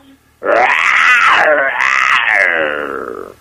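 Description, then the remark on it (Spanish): A person loudly imitates a lion's roar, a sustained, rough, rising-and-falling growl lasting about three seconds, alone without speech. “¿Qué tal mi rugido?”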